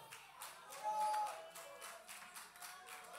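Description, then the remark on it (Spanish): Soft, steady applause from an audience: many hands clapping together in a dense, continuous patter that swells briefly partway through, with no voices over it. “Si ese aplauso es para mí está bueno, pero si es para Dios tiene artritis, déselo con fuerza, por favor.”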